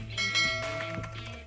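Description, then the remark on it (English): A bell rings out with a steady, resonant tone, its overtones sustaining over a low hum for the whole short moment. The sound is clear and moderately loud, with no voices. “All you got to do is subscribe and ring that bell so you don't miss out on a thing.”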